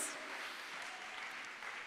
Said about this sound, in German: Come on, Jesus. Gebt einen Applaus für Jesus.